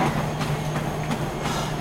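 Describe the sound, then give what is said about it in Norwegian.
A woman runs on a treadmill at 15 km per hour: a steady mechanical whir from the belt with quick, regular footfall thuds, about three per second, without any talking. “Ja, hun har sprunget fem minutter hvert øyeblikk nå på 15 km i timen akkurat.”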